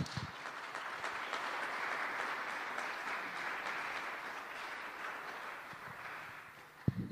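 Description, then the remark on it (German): An audience applauds steadily for about seven seconds as two people are called to the front, a dense wash of clapping that holds even in volume and thins slightly at the end, with a sharp knock just before it stops. “Und ihr dürft auch einen großen Applaus dazu geben.”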